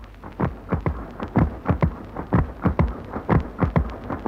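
Loud mechanical clatter of 600 weaving looms standing in tight rows in the large weaving hall of the Dierich mechanical weaving mill in Langenbielau, Silesia, sharp overlapping clacks of the shuttles and beating sleys in a rapid, slightly uneven rhythm over a constant rumbling din, with no voices.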